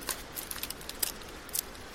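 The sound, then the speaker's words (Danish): Small dry kindling sticks being handled and stacked to build a campfire in the dark, giving quiet, irregular dry clicks and light wooden taps, with no talking. “Jeg har lært at lave et bål. Først skal vi bruge noget småt brænde.”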